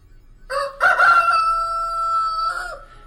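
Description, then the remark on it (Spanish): A single loud rooster crow rings out at dawn, a harsh, strained cock-a-doodle-doo that rises, holds a long drawn-out note and then drops off at the end. “Y de repente, con una estridencia preternatural, el canto de un gallo rasgó el aire diáfano de la madrugada.”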